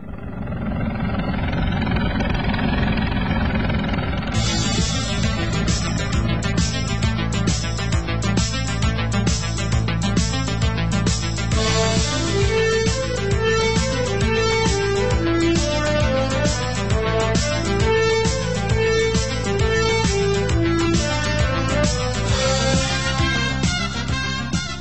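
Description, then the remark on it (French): The 1980s theme of the TV series Airwolf, about a sophisticated armed helicopter: a low rumbling, rotor-like whir builds for a few seconds, then a loud synthesizer theme kicks in with a driving beat, steady bass and repeating melodic phrases, no voices. “Ben ça, c'était Airwolf.”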